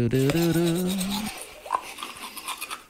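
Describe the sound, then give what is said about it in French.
A steady electric buzzing like a toothbrush motor runs loud for just over a second, then cuts off, leaving faint rustles and small clicks. “Ah, ah, j'étais certain que t'avais une brosse à dents électrique, toi.”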